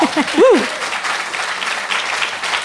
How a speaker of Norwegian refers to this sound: Kan hende dere er flere søndagsskolelærere her. Skal vi gi applaus for søndagsskolelærere?